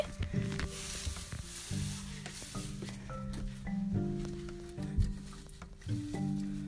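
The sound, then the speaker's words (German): Continuous dry rustling and crunching as loose hay is fetched, grabbed and shuffled while feeding animals, with steady soft squeaky tones running underneath; no one speaks. “So, jetzt hole ich noch Heu.”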